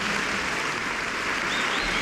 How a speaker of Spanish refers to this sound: El aplauso.